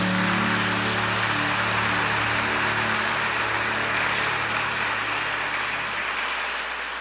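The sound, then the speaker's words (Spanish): A church audience claps steadily for the Lord after a prayer, a dense wash of applause with a low sustained musical drone underneath, fading slightly toward the end. “Démosle fuerte ese aplauso a Él, por favor.”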